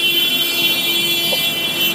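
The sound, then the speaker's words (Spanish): A loud, steady car horn blares without a break for the whole two seconds, a flat sustained tone over a faint traffic hum. No one speaks. “o simplemente escucho cómo tocan a lo estúpido, porque la gente es estúpida cuando toca el claxon.”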